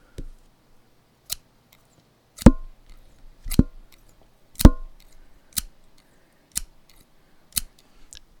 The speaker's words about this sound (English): Okay, and now we need to take out the scissors.